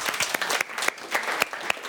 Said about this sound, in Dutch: Te gast zijn de gemeenteraadsleden Karen Gerbrands van de PVV hier aan de rechterkant en Mikkel Tsegai van de Partij van de Arbeid. Welkom en applaus alsjeblieft.